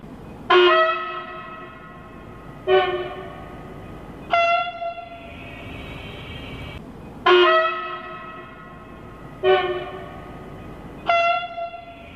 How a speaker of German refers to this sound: Die Anwohner hoffen, dass die Bahn wenigstens für die Hupen schnell eine Lösung findet.